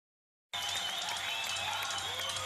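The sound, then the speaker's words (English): After a brief moment of silence, a large rock concert crowd bursts into loud, sustained applause, a dense wash of clapping with what sounds like scattered whistles and cheers on top, from a live recording of the tour soon after the album's 21 November 1975 release. “This is the tour. So let's have a little bit of just a, listen to a little bit of this.”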